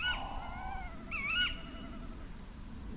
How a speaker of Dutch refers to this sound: Gaat dat nou de hele nacht zo door? nou, ik weet niet of de hele nacht zo doorgaat, maar ze kunnen soms best een hele tijd blijven roepen. Ja. Bosuilen. De bekendste uil en de meest voorkomende uil van Nederland.